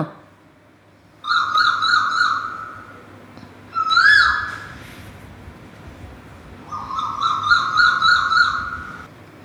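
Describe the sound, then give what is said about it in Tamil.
An Asian koel kept in a cage calls in three loud bursts of clear, whistled notes repeated quickly, with short pauses between bursts and only faint background noise. “அங்கே பாருங்க குழந்தைங்களா எவ்வளோ அழகாக குயில்களெல்லாம் ஒரு கேஜில் இருக்குது அதனோட அழகான சத்தத்தை கேட்கலாமா”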